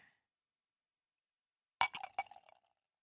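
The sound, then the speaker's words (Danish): Drinking glasses clink together as drinks are poured, a quick burst of four or five sharp taps over under a second, leaving a short ringing tone after a stretch of near silence. No one speaks. “Skal du lige have min, uh, mit glas? Oh, bring your glass, honey.”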